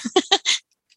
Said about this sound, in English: And I've got a noisy dog, so I'm going to mute.